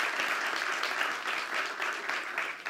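Steady applause from an audience, a dense wash of many hands clapping at an even loudness throughout, with no voices standing out.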